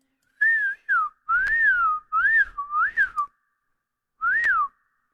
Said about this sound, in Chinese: 一回来就口哨，其实我吹口哨吹的不好，不会吹调子，只会吹声音。